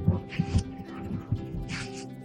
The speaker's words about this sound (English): the dog's sniffing my purse.